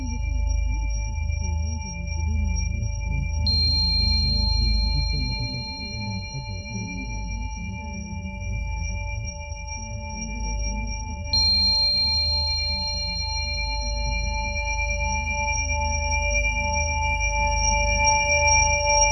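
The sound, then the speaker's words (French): Steady high-pitched ringing tones hang over a low rumbling drone, simulating tinnitus; two brief sharp pings appear partway through, adding a thin extra whine that slowly fades. No one speaks. “Ce bruit dans l'oreille”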